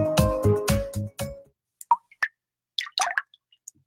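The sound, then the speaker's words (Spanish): Water drips from a leaky tap in a quick, irregular series of about ten bright plops, some overlapping. They follow a short burst of low, ringing tones, and no one speaks. “Repara las tuberías y las llaves que goteen en cocinas y baños ahorrarás 170 litros de agua al mes.”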